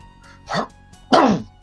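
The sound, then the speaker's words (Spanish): A loud sneeze in two bursts, a shorter gasping onset followed by a stronger explosive burst, with a brief quiet gap between and no talking. “Salud.”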